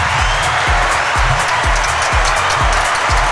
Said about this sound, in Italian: Che dire se non applausi?